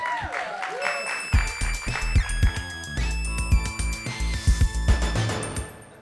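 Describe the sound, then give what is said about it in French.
A short, bright musical jingle played before a quiz, with sustained tonal notes and punchy rhythmic hits, loud and clear for a few seconds with no one talking over it. “Bon, on fait le quiz Ah oui Jingle”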